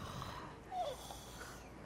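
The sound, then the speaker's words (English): Rough, noisy snoring breaths from a very sick patient fill the moment, steady, with one louder snorting swell partway through. No one speaks. “That snoring.”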